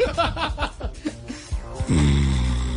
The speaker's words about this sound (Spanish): Veamos cómo le fue el presidente Petro probando con IA. Aquí está. Ese es, Petro, ese es Petro roncando, no van a creer que es IA.